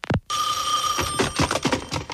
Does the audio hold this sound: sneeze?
no